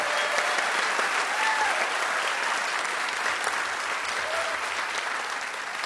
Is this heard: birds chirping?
no